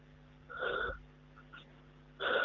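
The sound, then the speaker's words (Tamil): Two wheezy inhalations, each a strained, whistling breath drawn in by a person, separated by a quiet pause with a faint hum in the background. “ஒரு நிமிஷம் டேய் நான் மூச்சு இழுக்கிறேன்ல அதுலேருந்து வருதுடா அந்த சத்தம்”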